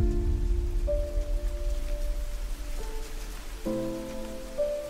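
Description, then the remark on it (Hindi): Rain on rainy days: raindrops patter steadily against window glass, racing one another down the panes, in a continuous, even wash of rain, with soft sustained musical tones humming underneath and no voices. “बारिश के दिन फिर से वापस आ गए गरज बरस बरसात की टिप टिप और खिड़कियों के गिलास पर एक दूसरे से रेस अड़ाती बूंदे”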